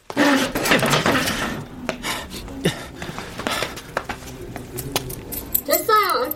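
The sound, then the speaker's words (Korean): A chair scrapes across a hallway floor as someone abruptly stands up, in a burst of loud, rough wooden rasping with a few sharp knocks, ending in a short squealing screech as it drags to a stop. “의자 끌리는 소리가 복도를 갈랐다.”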